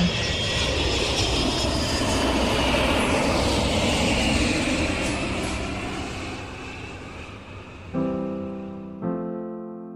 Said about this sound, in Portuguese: Lá estávamos nós viajando de avião juntos, rumo ao campeonato nacional.